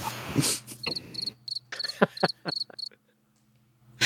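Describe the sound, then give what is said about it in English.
Crickets chirp in quick, high-pitched bursts for a few seconds over a low steady hum, then fall silent before a sudden loud noise cuts in at the very end. “space crickets will kill you every time.”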